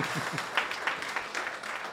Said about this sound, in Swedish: Det är faktiskt värt en applåd.